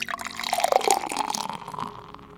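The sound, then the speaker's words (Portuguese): Water pours steadily into a drinking glass for a couple of seconds, a gurgling splash with a faintly rising ring as the glass fills, then tapering off. “E neste exato momento, irmanados em pensamento com os amigos espirituais que nos acolhem e envolvem, recebamos nesse copo d'água”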